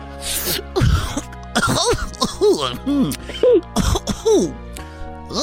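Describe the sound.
A person imitates Barney the dinosaur coughing from smoking marijuana: a string of raspy, strained coughs and throat-clearing hacks in quick bursts, fairly loud, with voiced groaning tones mixed in.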